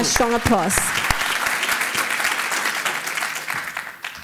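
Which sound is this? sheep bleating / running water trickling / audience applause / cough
audience applause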